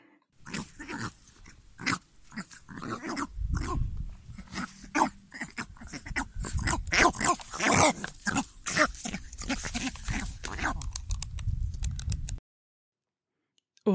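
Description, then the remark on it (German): Northern bald ibis calls: a dense run of harsh, guttural croaks and grunts, overlapping and repeating quickly for about twelve seconds, loud, then cutting off abruptly. “Und so klingen sie übrigens.”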